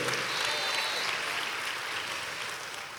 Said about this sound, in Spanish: Dele un aplauso al Señor, amado hermano.